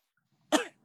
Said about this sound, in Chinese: 使用了咳嗽战术。